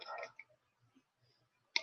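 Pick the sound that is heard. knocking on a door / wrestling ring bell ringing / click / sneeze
click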